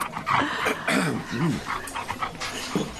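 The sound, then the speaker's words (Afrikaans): A dog pants in quick, steady breaths, with a couple of short, high whines slipping in midway against faint background murmur, while out at a pub. “O, oh, dis lekker om 'n bietjie uit te kom hê my hond.”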